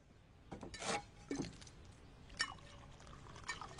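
Liquid is poured into a cup in a few short, splashy bursts, fairly quiet, with faint clinks and rustling between pours and no voices.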